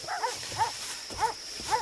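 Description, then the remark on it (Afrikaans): Four sharp dog barks in an uneven rhythm, over a steady high-pitched hiss like insects buzzing in the background, outdoors in hot weather. “so, um, mooi honde.”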